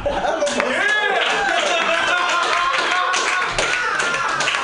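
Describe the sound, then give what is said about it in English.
A crowd claps steadily for a few seconds, a dense, even patter of many hands, with voices cheering and calling out over the applause. “Round of applause there.”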